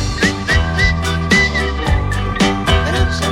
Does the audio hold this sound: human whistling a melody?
yes